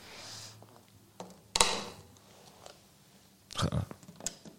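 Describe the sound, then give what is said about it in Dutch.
A bicycle is hoisted onto a repair stand hoist at a bicycle repair shop: loud mechanical clunks and rattles, with two heavier bangs separated by quieter clicks and scraping, and no talking. “Ja, kijk, dit is toch, is toch het geluid dat je hoort bij een fietsenmaker.”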